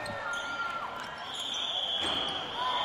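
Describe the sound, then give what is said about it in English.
Basketball game sounds: a few dull ball bounces amid high, drawn-out sneaker squeaks on a hardwood floor and a steady murmur of indistinct voices, held at a fairly even, moderate level throughout. “Without hearing aids and with the sounds of basketball turned down”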